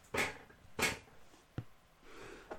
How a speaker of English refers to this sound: this, this chair makes way too much noise.